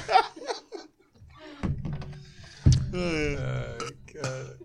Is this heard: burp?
yes